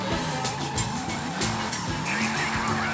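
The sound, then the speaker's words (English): Video game car drifting with tires squealing continuously over a steady engine roar, loud, with sharp screeching bursts repeating throughout. “Oh! coming for drifting great.”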